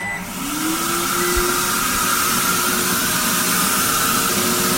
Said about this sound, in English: is going brown by the second here as this spray, a bit like a petrol pump actually, is sprayed first on his back.